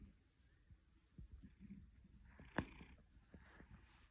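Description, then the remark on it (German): A male domestic cat purring while kneading, a soft, low rumbling made of steady rapid pulses, quiet throughout, with one brief sharp click partway through. “Du sollst nicht den Milchtritt machen, sondern du sollst schnurren.”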